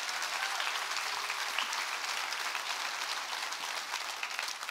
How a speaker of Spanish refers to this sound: Dale más fuerte ese aplauso al Rey, por favor.